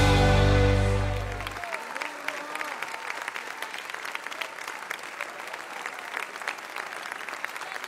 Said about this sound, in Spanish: Fuerte para Jesús ese aplauso. Maravilloso.